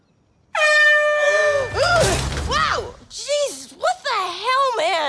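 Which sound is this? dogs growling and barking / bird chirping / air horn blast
air horn blast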